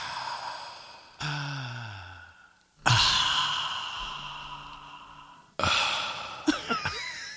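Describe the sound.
Four loud voiced 'ahh' exhales in a row, breathy and drawn out like a satisfied sigh after taking a sip of a drink, each made by a voice imitating the sound a grandpa used to make after a sip, with no words spoken.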